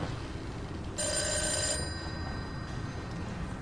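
A telephone rings once in a short, bright electronic burst over a steady low rumble of background noise, with no one speaking.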